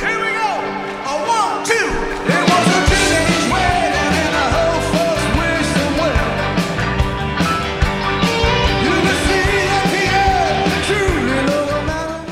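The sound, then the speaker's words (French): A loud, energetic rock and roll recording plays continuously, with driving rhythm, dense guitar and band texture, and a raw vocal shouting over it, kicking in fully after a brief quieter opening. “J'ai préparé, je ne te l'ai pas dit, c'est une surprise, un petit son pour nous mettre euh, dans l'ambiance.”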